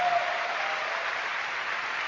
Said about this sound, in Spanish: Admiro a esa mujer. Un aplauso para esa campeona. Regálenmelo, por favor.